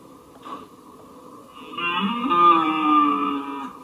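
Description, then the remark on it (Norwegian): A moose gives one long, low, moaning bellow that swells in and holds for about two seconds, clear, after a quiet stretch with only faint background hum, heard from a video played on a phone. “Er det elg? Ja. Det er en elg som dukker opp inni kranen.”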